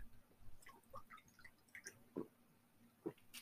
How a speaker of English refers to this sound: Oh, I needed a sip of water there. My mouth is getting dry.